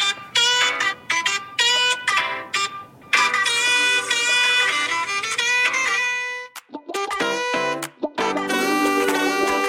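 A pop song plays from a recording, bright sustained melodic tones with layered harmonics, steady and fairly loud, broken by a few brief dropouts before the music swells again.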